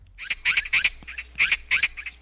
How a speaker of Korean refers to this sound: 네, 반가운 손님을 예고하는 까치 소리입니다.